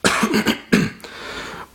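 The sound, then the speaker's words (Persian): Two loud coughs in quick succession, the second followed by a raspy trailing exhale, with no talking. “دیگه میخواستم قطع بکنم دیدم ولش کن بذارید سرفه رو بکنم”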